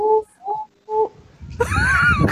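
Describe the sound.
A man's voice imitates Tarzan's jungle yell: three short yodeling hoots, then a loud, strained, wavering cry that sounds somewhat rough.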